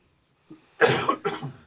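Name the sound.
cough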